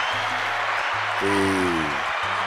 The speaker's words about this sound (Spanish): Aplauso para Tuto. Tuto, te queremos.